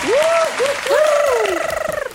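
Brief burst of audience applause for prize winners invited to Stockholm, a dense wash of clapping with high whooping cheers rising and gliding over it, the clapping turning choppier as it fades at the end.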